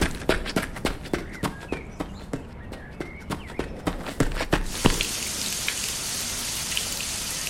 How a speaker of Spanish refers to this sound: Me echaste mucha agua y ahora las corrientes de aire son muy frías.